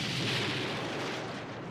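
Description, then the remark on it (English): A loud explosion roars through, a dense burst of crackling, rumbling noise that stays heavy for a couple of seconds before easing slightly, with no voices; rooms are being blown up as a special effect during filming, moving down a hallway. “We were actually blowing these rooms uh, and moving down this hallway.”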